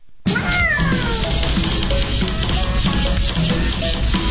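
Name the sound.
cat meowing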